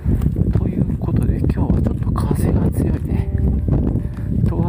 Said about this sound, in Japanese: 通勤途中に歩きながら録音してますので息がハーハー上がったり周りの騒音雑音風切り音などが入ったりしますけどもご容赦ください